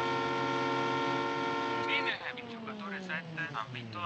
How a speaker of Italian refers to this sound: Teniamo il clacson perché siamo per vincere.